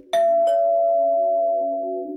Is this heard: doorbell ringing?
yes